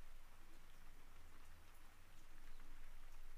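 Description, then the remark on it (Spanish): Soft, light rain falls steadily, a gentle continuous patter of fine drops with no voices, even and quiet throughout. “Recordando la calidez del bosque, pero también del sonido de esta suave y leve lluvia.”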